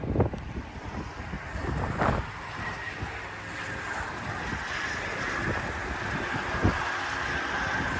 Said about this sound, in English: And we're just right on the Avenue of the Saints for folks who may not know where here is and it is breezy. So if you're hearing a lot of wind, I'll do my best to keep that noise down, but it's going to be kind of hard.